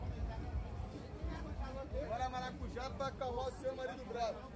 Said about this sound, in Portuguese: Toda essa diversidade torna o ambiente densamente povoado. Pessoas, motos, cachorros transitam pelas frestas numa estranha harmonia caótica.